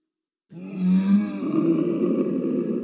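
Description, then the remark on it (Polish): A single powerful roar from a large creature erupts after a brief silence as a huge shadow flies out from behind the trees, deep and rumbling, sustained loudly for over two seconds with a growling, textured edge and no voices. “I nagle za drzew wylatuje olbrzymi cień i słychać tylko potężny ryk.”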